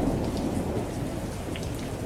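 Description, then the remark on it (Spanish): Heavy rain pours down steadily in a storm onto a town square under the streetlights, the water risen almost to the curb; a dense, unbroken hiss with a deep low rumble underneath, constant in loudness throughout with no voices. “Siempre me gustó ver caer el agua a través de las luces de la calle.”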